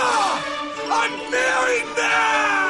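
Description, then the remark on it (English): A person screams loudly and at length as a healthy release on WFLA radio's morning show segment "What's the Beef?", a strained, raw vocal cry that rises and wavers in pitch with brief dips, filling the whole moment with no other sounds. “WFLA reminds you that screaming can be a healthy release.”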